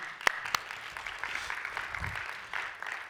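An audience at UAC applauds a man who has just shared his testimony, a dense steady patter of many hands clapping at moderate volume, with a couple of sharper individual claps near the start and no talking over it.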